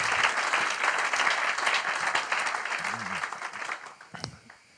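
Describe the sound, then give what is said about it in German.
An audience applauds with dense, steady clapping that stays strong for several seconds, then gradually thins and fades toward the end. “Applaus”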